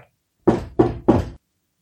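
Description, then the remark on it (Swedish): Three firm knocks on a door in quick, even succession, fairly loud, with nothing else around them. “Då knackade det plötsligt på dörren.”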